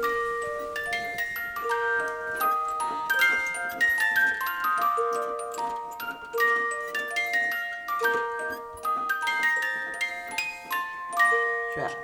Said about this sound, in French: Et moi j'ai fini ma petite maison, ma petite boîte maison musicale.